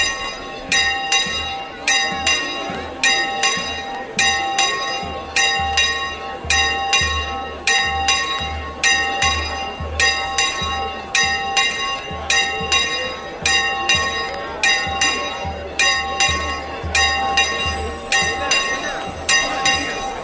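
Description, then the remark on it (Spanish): Bells of the Moguer brotherhood ring in a steady, rapid rhythm of repeated clanging strikes, loud and continuous throughout, over a low rumbling background of an outdoor pilgrimage procession. “Y esas campanas son las de la Hermandad de Moguer.”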